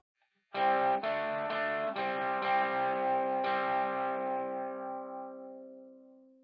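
Opening of a hard rock song: a few sustained, effect-laden chords strike in quick succession, then one held chord rings out and slowly fades, with no singing.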